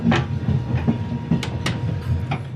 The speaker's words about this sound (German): Grüezi und herzlich willkommen im Glacier Express. Im langsamsten Schnellzug der Welt. Durchschnittlich 30 bis 50 Kilometer pro Stunde fährt der Glacier Express von St. Moritz im Engadin bis Zermatt im Wallis. Eine Reise über 291 Kilometer.